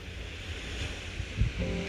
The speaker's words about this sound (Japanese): 今日は単純に海の音を聞くだけのラジオです